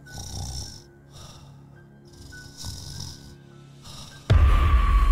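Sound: imitated snoring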